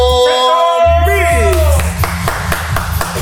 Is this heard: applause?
yes